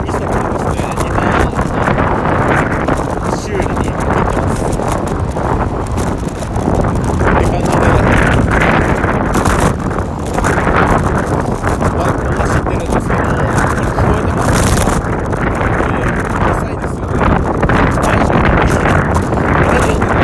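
Loud, steady wind buffeting a microphone while riding a road bike during a live stream, a constant low roaring rumble with gusty surges throughout; faint voice fragments may be buried underneath.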